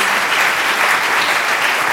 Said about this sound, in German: Vielen Dank für, für die gute Musik. Können wir einen Applaus geben, den, den Musikern?